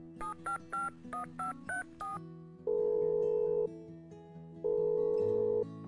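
A quick run of seven or eight bright, evenly spaced keypad beeps from a phone being dialed, followed by two long, steady tones of ringback, with a low hum running underneath throughout.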